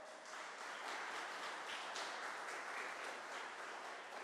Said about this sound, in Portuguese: Aleluia! E aplauda Jesus bem alto.